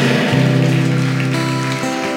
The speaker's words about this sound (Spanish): Dele fuerte un aplauso por última vez.